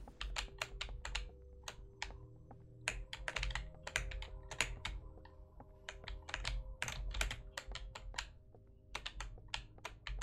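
Rapid, irregular clacking of computer keys being hammered, a dense flurry of sharp clicks over a low steady hum, with no voices.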